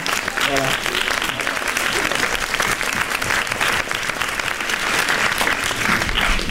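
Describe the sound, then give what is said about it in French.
An audience at the Rencontres du 7e art breaks into sustained applause for a guest who is asked to stand up, a dense, steady clatter of many hands clapping at even loudness for several seconds, with no pauses or build-up. “On peut l'applaudir, il peut se lever puisque elle est toi, pour te voir.”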